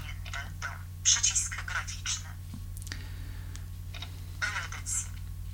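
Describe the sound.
A phone's synthetic screen-reader voice, an English voice despite a Polish voice being set, speaks in short, clipped bursts, echoing keys one at a time as they're typed, over a low steady hum with faint taps between.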